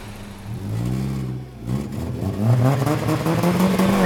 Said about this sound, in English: Jermut's sleek car pulled away, kicking up dust